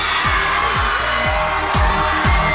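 An applause and cheering sound effect welcoming a guest on an audio show: a loud, dense wash of crowd cheering and clapping fills the whole clip, with a steady roar and repeated low booming thumps every half second or so underneath.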